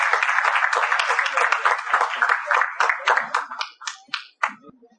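A crowd applauds loudly with dense, steady clapping that gradually thins out, leaving a few scattered individual claps near the end.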